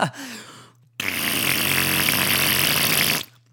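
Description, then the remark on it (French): A loud, sustained, raspy fart-like blast lasting about two seconds, rough and buzzing across a wide range, preceded by a shorter, fainter sputtering burst. “Tiens donc, ça vient d'un d'un d'un cul d'éléphant ou quoi”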